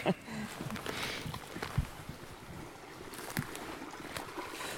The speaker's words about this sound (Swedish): Det är ju alltid roligt att vara framme vid vattendrag, alltså små mm. bäckar och grejer. Och här är ju i stort sett alla bäckar drickbart vatten.